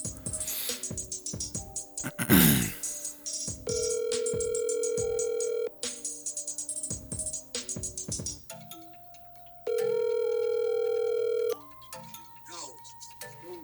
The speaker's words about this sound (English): So let's go ahead and make this phone call.